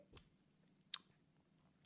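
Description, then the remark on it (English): Quiet mouth sounds of a person tasting whiskey after swirling it and smelling it: three brief wet smacks and slurps spaced apart over a low hum, with no talking. “And as I swirl this around, I will bring it to my nose and I will take another sip.”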